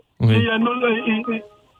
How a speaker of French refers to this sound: oui, il y a votre téléphone qui sonne, Manjou. Hein, c'est un petit peu désagréable.